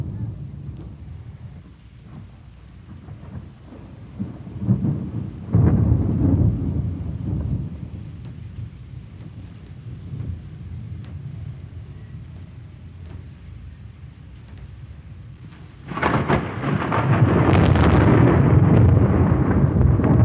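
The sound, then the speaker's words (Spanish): Steady rain hisses throughout while deep thunder rumbles roll in, one swelling briefly midway and a louder, sustained roar of rain and thunder building near the end. “La lluvia cae y limpia las heridas emocionales.”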